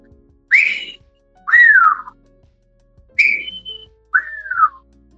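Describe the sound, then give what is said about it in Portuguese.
A person whistles an imitation of the song of the Capitão-do-mato bird: four short, clear phrases with gliding pitch, each rising then falling, separated by brief pauses, with no talking. “Aí eu escuto um canto de um pássaro, que numa palestra que eu fiz lá, em, lá na Embraer, o, o rapaz me disse pássaro que era, chama-se Capitão do Mato. E eu comecei a viajar no canto desse pássaro. E o canto é assim.”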